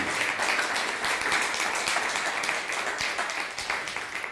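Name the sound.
loud applause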